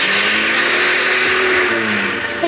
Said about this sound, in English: His knuckles turned white as he clutched the wheel. He, he shoved the car into reverse.